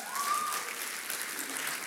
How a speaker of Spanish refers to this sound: Quiero que le den un fuerte aplauso. Él es nuestro pastor.